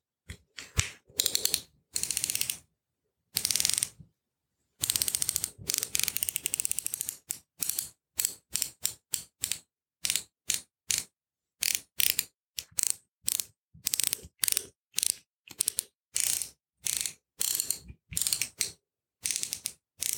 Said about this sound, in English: Let's tighten up those sockets again to keep them in place.